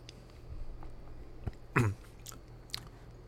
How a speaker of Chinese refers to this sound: 好，喝个水。